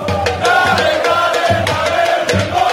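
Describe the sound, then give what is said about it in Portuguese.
A large crowd of red-and-black football fans in Montevideo, ahead of the Copa Libertadores final, chants loudly in unison, voices blending into a dense, rhythmic roar with regular beats, sustained without pause throughout. “Bom, a torcida rubro-negra invadiu Montevidéu. Vamos ver como está o clima da final por lá.”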